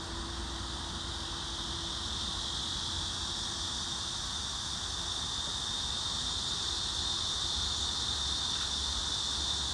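Cicadas buzz in a steady, unbroken high-pitched drone, heard while standing under a tree in 34°C heat, holding at an even loudness for the whole stretch, with a soft hiss beneath and no one speaking.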